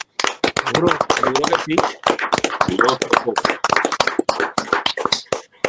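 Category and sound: crowd, audience applause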